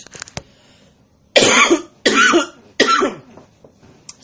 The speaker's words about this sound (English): I don't like coughing.